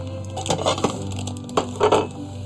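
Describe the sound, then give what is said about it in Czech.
A knife saws through a sweet bun in two short crackling, crunchy bursts, fairly loud, over a faint steady background hum. “tak já teď nakrajím ten, buchtu a potom jo.”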